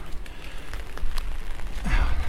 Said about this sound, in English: raining, of course.